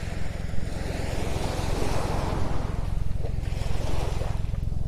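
Ocean waves wash continuously onto a beach at Hayama, Japan, at dusk just after sunset, a steady hiss of surf swelling slightly toward the end, over a constant low rumble. No one speaks.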